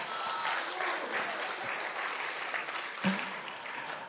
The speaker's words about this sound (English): Let's, let's applaud for the Lord Jesus.